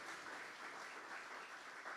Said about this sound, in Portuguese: Vamos dar um aplauso, Senhor, pela vida de todos vocês.